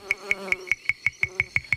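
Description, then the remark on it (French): Flies buzzing around a dead body in a quick, steady run of sharp pulsing bursts, clear, with nothing else in the background. “Le corps de la pauvre maman Pique commençait à attirer les mouches.”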